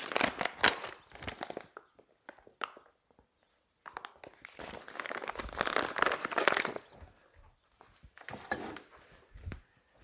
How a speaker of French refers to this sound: Je commence par sortir de la farine que je vais mettre dans un petit bol. Ça va nous servir pour rouler nos petites boulettes dedans et donner un peu de croustillant à la cuisson.